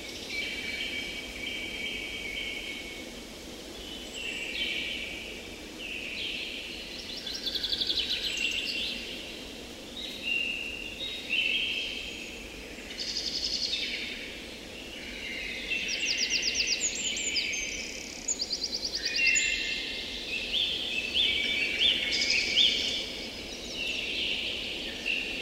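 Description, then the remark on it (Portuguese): Several birds sing and chirp continuously outdoors on a calm morning, their overlapping high-pitched calls over a soft steady background hum, with no voices. “ouvimos os cantos dos pássaros nesta calma manhã.”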